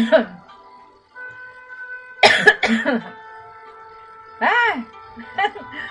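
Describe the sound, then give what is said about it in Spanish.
Several harsh coughs burst out in uneven clusters, with a short pause between fits, from someone who choked on tea. A steady faint tone hums underneath. “Empecé tosiendo.”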